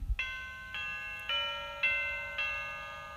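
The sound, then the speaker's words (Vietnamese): A clock bell strikes twelve times for midnight in a slow, steady rhythm, each resonant chime ringing on into the next. It is clear, with no voices. “đúng lúc chuông điểm 12 tiếng báo hiệu nửa đêm”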